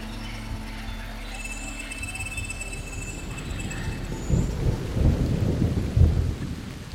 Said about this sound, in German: Es ist stockdunkel und gießt in Strömen. Sie hat gerade geträumt, dass ein Regen aus Stecknadeln auf sie herabprasselt. Jetzt weiß Juliane warum. Die Tropfen sind klein und eiskalt.